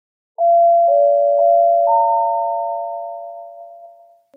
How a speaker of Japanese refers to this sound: 案内放送の、そうそうね、飛行場の、うん、呼び出しの、はい、音ですね。うん。うんうん。これはね、まあよく聞くかなと思うねんけど、まあでも、うんこれなんかね、羽田空港の呼び出しチャイムらしいんですけど